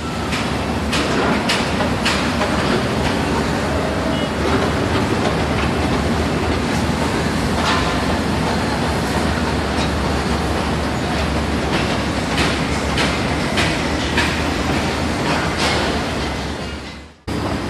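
Busy construction site noise in Bangkok on a Sunday morning as workers build: a steady, loud mechanical roar with frequent sharp metallic clanks and knocks scattered throughout. No one speaks, and the noise cuts off abruptly at the end.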